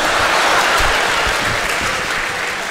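A crowd applauds loudly and steadily, a dense wash of many hands clapping that holds for a few seconds and eases only slightly toward the end, with no voices on top.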